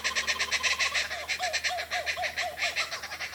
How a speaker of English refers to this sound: I love the sound of tooting little penguins. And laughing kookaburras.